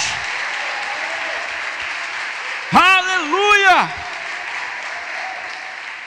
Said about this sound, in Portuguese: Pode aplaudir mais forte. Pode dar glória a Deus.